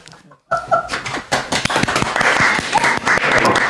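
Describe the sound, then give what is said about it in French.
An audience breaks into applause after a brief pause at the end of a spoken chronicle, a dense wash of sharp overlapping claps that swells and stays loud and steady, with some scattered voices and cheering mixed in. “Ah, c'est la première fois que je suis applaudi pour une chronique.”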